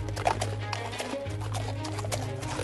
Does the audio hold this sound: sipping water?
no